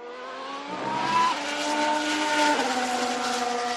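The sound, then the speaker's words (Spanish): A Formula 1 race car roars past at high speed, its loud, high-pitched engine whine stepping abruptly down in pitch a couple of times as it goes by. No one speaks. “Y ahora va a pasar la que para mí, la que para mí puede ser la sorpresa del comienzo del año se acerca ya a toda velocidad y va a pasar por este estudio, vamos a escucharlo.”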